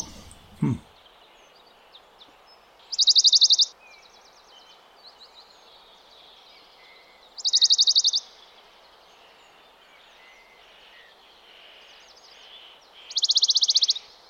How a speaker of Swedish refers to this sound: Ja, men, och det är ju en av de där som jag skulle liksom tycka är den klassiska bergsångarsången. Det, det är en som låter rätt Ja, jag, jag tycker den låter avvikande. Ja. Men att, vad spännande att det är samma fågel alltså.